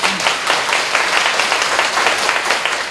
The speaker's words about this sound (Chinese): 这个要拍手，拍拍手。